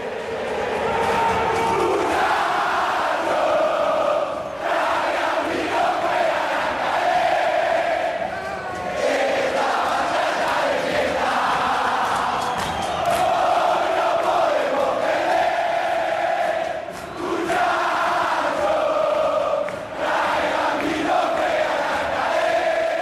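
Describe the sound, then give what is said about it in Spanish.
Loud, steady crowd chatter in a tavern in Sheffield: many overlapping voices blend into a dense hubbub for the whole stretch, with occasional louder shouts rising above the din. “Estás escuchando una taberna de Sheffield.”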